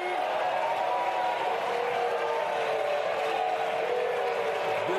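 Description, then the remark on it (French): Members of the French National Assembly boo and shout at the Prime Minister inside the chamber after she invokes Article 49.3 for the pension reform, a dense, loud roar of many voices with no pauses for the whole stretch. “Depuis quand n'avons-nous pas vécu une journée politique comme celle-ci La première ministre huée, défiée par la Marseillaise à l'intérieur de l'hémicycle”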